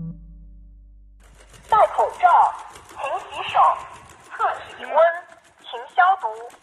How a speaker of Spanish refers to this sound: Esto que escuchamos es un robot con forma de perro recorriendo las calles de Shanghái recordando a la gente las reglas eh, del comportamiento durante la pandemia.